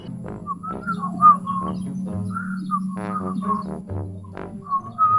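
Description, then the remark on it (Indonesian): Someone whistles a short, wavering tune in clear phrases of rising and falling notes, with a steady low hum and a few soft clicks underneath. “Woi, siul aja pales.”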